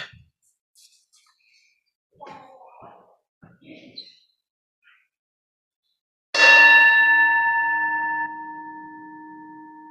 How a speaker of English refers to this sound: And now I'd like to invite everyone at home and here in the sanctuary to settle in comfortably and take a deep breath as we hear the ringing of the bell calling us into worship.